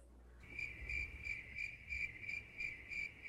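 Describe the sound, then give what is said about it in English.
Crickets chirp steadily as an added sound effect, in a continuous, high-pitched trill with a regular pulsing rhythm, moderately loud, with no voices present. “That is add the crickets.”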